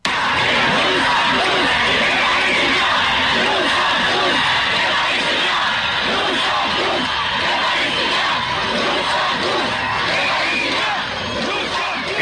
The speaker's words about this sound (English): Uh, it was supposed to be a rally in Paris, but mm-hmm. it ended up escalating into a riot, and I guess uh, there's a number of them going on right now in Paris as we speak. Listen.